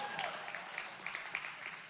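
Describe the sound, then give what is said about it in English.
A church audience claps to give God glory, a dense, steady wash of applause that holds at an even level throughout, with a few faint voices mixed into the clapping. “It's amazing what I can get you to clap for, by the way.”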